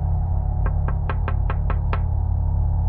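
Seven quick, evenly spaced, sharp knuckle raps on an office window beside the time-card rack, over a steady low background hum, with no talking.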